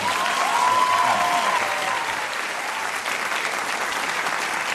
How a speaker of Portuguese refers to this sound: Se vocês quiserem aplaudir, ele não vai ficar triste, não.